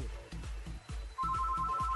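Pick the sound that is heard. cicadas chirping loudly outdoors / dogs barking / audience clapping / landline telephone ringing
landline telephone ringing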